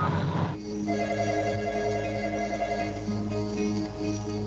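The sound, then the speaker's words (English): A steady electronic telephone ring hums continuously at night after a brief rustling burst at the start, its layered tones holding at a moderate level with no voices present. “When the phone rang that night, I almost didn't answer it.”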